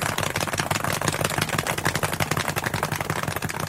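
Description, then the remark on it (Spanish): A fast, steady drum roll announcing the winner of a folk music competition, rapid, evenly spaced strokes that rattle continuously at a constant loud level, with no voices over it. “Redoble de tambores para anunciar al ganador de la competencia folclórica.”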